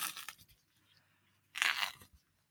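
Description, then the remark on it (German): Crunchy chewing in two bursts, a short one at the start and a louder, longer crunch after a quiet pause, as someone eats a banana. No talking. “Warte, ah, willst du bei mir auch raten, was ich esse?”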